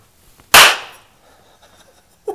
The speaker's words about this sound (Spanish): Otra cosa que he aprendido gracias por la explicación y que la voy a compartir, es que yo no sabía para qué servía la claqueta, que así se llama, en las películas.